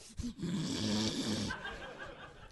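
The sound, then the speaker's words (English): A low, throaty grunt rumbles for about a second, gravelly and drawn out, then trails off into faint breathy noises. “Is that oh. grunting noise a good one?”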